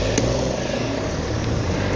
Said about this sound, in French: Oh, il fait quoi l'autre avec son camion derrière moi là